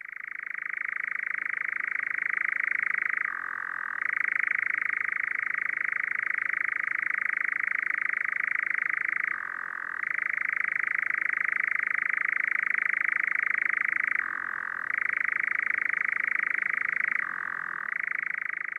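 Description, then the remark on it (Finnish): A European nightjar churring: a loud, unbroken mechanical trill that drones on alone for the whole stretch, dipping briefly in pitch every few seconds before resuming its steady reeling. “Kehrääjä on karujen metsäkankaiden, kalliomänniköiden ja rämeiden lintulaji, yöaktiivinen hyönteissyöjä – pitkän matkan muuttaja, jota tavataan eteläisessä Suomessa kesävieraana.”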